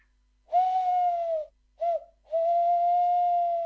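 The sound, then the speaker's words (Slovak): A clear voice imitates a long-eared owl's hooting: a long steady hoot, a brief one, then another long sustained hoot, with nothing else around. “To nemusíte byť v lese, ale hoci kde, alebo keď ešte tam zahúka myšiarky teraz takto húkajú.”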